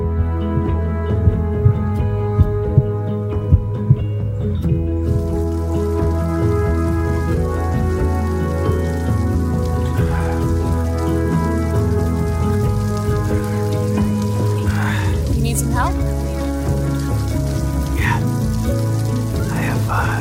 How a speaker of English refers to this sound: it's okay. I don't mind the rain.